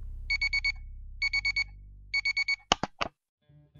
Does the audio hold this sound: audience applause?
no